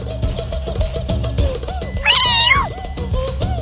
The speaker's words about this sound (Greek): Τι ήταν αυτό. Η ψιψίνα.